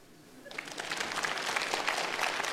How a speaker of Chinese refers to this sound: 这个事情竟然有人鼓掌了。